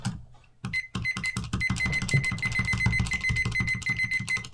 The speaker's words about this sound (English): So, that's I, me setting my 30 second timer.